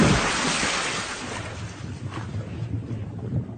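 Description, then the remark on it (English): A heavy, loud splash as someone plunges down into a lake, followed by a few seconds of churning, bubbling water that gradually settles. No one speaks. “Directly below was a lake.”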